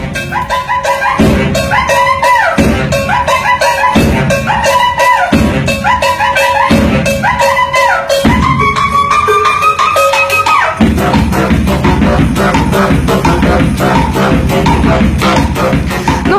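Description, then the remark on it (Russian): Two young street musicians busk in the New York subway at Union Square, one on drums and one on saxophone: a steady driving beat under short repeated sax riffs that swell into a busier, fuller jam near the end. Loud, with no talking. “Один играет на барабанах, э, какой-то, видимо, очень э, такой увлеченный молодой Второй человек. на саксофоне.”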